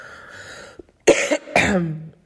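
Two harsh coughs in quick succession, the second slightly longer and trailing off, with a quiet breathy lead-in and no talking.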